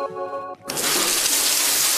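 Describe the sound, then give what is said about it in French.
A brief tonal musical sting, the jingle of a radio morning game, gives way abruptly to the loud, steady hiss of a shower running, the water noise continuous through to the end. “avec le jeu de la douche sur France Bleu Besançon”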